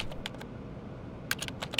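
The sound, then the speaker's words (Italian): Rapid clicking of keys on a computer keyboard, a quick irregular burst of sharp taps against a low background hum, with no voices. “digita veloce sulla tastiera, perché ogni giorno, in maniera compulsiva, controlla se stessa.”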